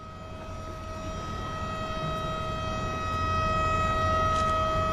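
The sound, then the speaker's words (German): A steady, sustained siren wails continuously at one pitch at 13:55, announcing the raising of a bridge, layered over a low rumbling background, growing slightly louder toward the end with no voices present. “Um 13.55 Uhr kündigt eine Sirene das Hochziehen der Brücke an.”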